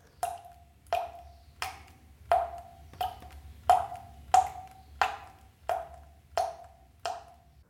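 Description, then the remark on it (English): Water dripping in a steady, even rhythm, about eleven distinct plinks with a short ringing tone each, clear against a quiet low hum, with no voices. “For me, a scary sound is maybe the sound of water dripping in the middle of the night, which signifies I have a leak somewhere that needs fixing.”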